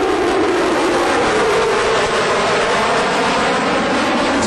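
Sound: jet aircraft flying overhead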